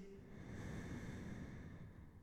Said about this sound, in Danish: Jeg kan kun høre min egen vejrtrækning.